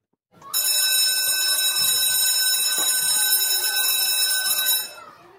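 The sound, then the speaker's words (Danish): A school bell rings loudly and continuously for about four seconds, ringing in for recess, a harsh, metallic electric clang with a bright, buzzing tone, then cuts off abruptly. “det er jo en skoleklokke, der ringer ind til frikvarter”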